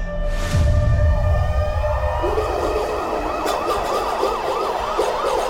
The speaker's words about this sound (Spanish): Esa noche sonaron las sirenas.